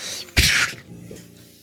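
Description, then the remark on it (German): A voice makes one quick, breathy whoosh, imitating an arrow flying past and missing. It's a loud, sharp burst of air that fades quickly, with a soft murmur afterward. “Auch dieser Pfeil hört ihn nur so, nur so ein”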